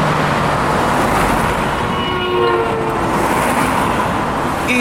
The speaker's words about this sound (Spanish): los carros pasaban y, le pitaban.